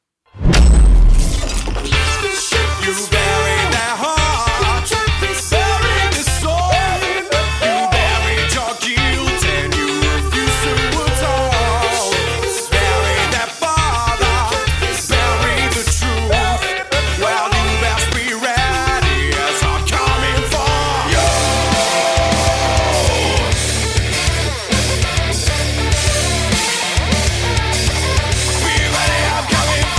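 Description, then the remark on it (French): A loud, dense rock track plays with heavy distorted guitars, a thick bass line and punchy drums hitting steadily throughout, no voices talking over it. “C'est … de … dans le Demon Show.”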